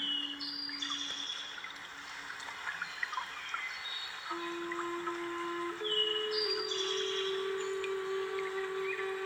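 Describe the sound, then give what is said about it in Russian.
Soft, steady babbling of trickling water runs continuously throughout, with sustained tonal notes and faint chirps layered above it. No one speaks. “прислушайтесь к журчанию водички.”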